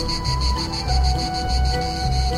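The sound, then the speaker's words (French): Loud, continuous buzzing of male cicadas, which vibrate two muscles up to 900 times per second in their hollow abdomens, a dense shrill drone with a steady pulsing throb, filling the whole recording with no voices. “les mâles font vibrer deux muscles jusqu'à 900 fois par seconde dans leur abdomen creux, qui sert de caisse de résonance”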